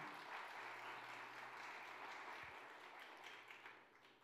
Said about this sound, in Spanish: Vamos a darle otro aplauso fuerte.